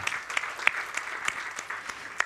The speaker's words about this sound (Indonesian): Oh kita beri tepuk tangan dulu kalau gitu.